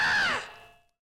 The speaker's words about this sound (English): That awful, jagged scream. It sounded like it was torn out of somebody. It drove me backwards, almost off my chair.